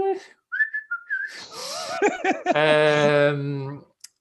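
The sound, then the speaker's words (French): A person whistles a few short, wavering notes, then breaks into laughter and a long, drawn-out voiced hum. “Tu déjà essayé de siffler comme épée.”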